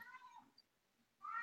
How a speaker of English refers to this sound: You got a bird in there or, or a cat? That's a cat.